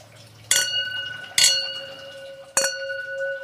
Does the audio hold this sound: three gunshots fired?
no